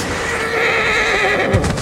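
horse neighing

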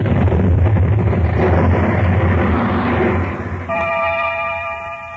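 explosion

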